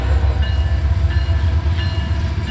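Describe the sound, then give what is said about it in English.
A train rumbles steadily past on tracks right by Riverfront Field, on the bank of the Willamette River next to the bridge on the way to Autzen Stadium, a loud, heavy low-end roar with faint metallic squeals and clatter overhead, and no voices. “Oh yeah, there are train tracks right there too.”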